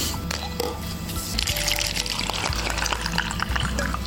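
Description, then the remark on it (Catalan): Water pours steadily into a glass for about four seconds, a continuous splashing gurgle with small clinks and bubbles, fairly loud and heard without any talking. “com estàs tu en aigua? La tenim tots al got?”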